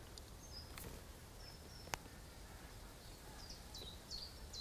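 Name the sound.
many birds calling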